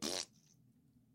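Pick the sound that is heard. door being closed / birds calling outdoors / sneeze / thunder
sneeze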